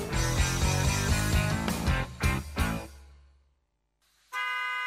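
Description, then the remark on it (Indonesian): Loud, overlapping car horns honk in a dense cluster in a traffic jam around Jakarta, then fade away. After a brief silence, a single sustained horn blares at the end. “Macet dan perjalanan panjang mungkin sudah jadi makanan sehari-hari penduduk Jakarta dan sekitarnya, termasuk Bekasi.”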